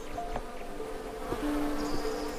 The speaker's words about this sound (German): Er führt dich ein ganzes Stück lang weiter über die große Blumenwiese vorbei an Blüten, anderen Schmetterlingen, fleißigen Bienen